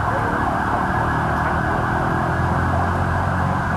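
An ambulance siren wails loudly and continuously over a dense rumble of road traffic, with no break for the whole stretch.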